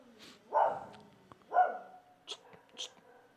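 A dog barks twice, about a second apart, moderately loud, followed by a couple of faint, breathy, whisper-like sounds against a quiet background.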